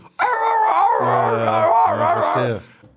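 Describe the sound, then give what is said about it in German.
A person imitates a fox barking, letting out one loud, drawn-out wailing cry that wavers in pitch for over two seconds before trailing off. “Hast du mal einen Fuchs bellen hören? Ja, das war so...”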